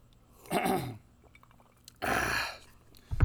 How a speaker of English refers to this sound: let me uh, clear my throat